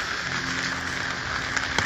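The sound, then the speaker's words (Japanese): Steady rain patters on an umbrella overhead, a dense hiss of drops with a few sharper taps standing out near the end; no one speaks. “いつもこうやってね車の音が入るくらいやからこう傘に当たる雨粒の音とか入っちゃって聞き苦しいものになってるんじゃないかななんて思いながらもちょっとどんな感じに仕上がるのか聞きたくて撮ってるところはありますまああんまりにもこうバタバタバタバタ言ってる場合は薄く BGM かければまあ聞けるものになるかもしれないですね”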